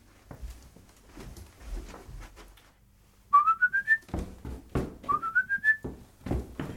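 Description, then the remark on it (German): The melody of the world-famous opera aria "Der Vogelfänger bin ich ja" is whistled: two quick rising phrases of five stepped notes, bright and clear, separated by a brief pause, with soft clattering and rustling underneath. “Wenn ich raus muss auf die Bühne, habe ich gleich diese weltberühmte Arie.”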